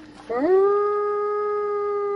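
A single long wolf howl rises quickly in pitch, then holds a steady, clear tone with strong harmonics, loud with no talking.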